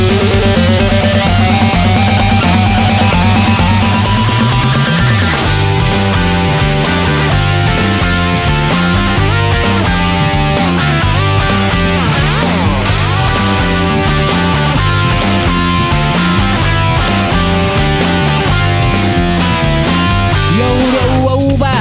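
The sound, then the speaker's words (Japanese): Loud, dense band music, the intro of a song, plays continuously, with thick layered instruments, a steady driving rhythm and a busy full-range sound that keeps building with no voices. “それ音楽を聴く環境が整いましたらあのがっつり聴いていただきたいと思いますよはい、それではいきましょうか”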